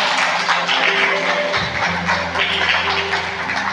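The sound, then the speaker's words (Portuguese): A church audience applauds Jesus loudly and steadily, a dense wash of clapping that fills the whole stretch, with low sustained tones, like held keyboard notes, humming underneath. “Você pode aplaudir Jesus bem forte.”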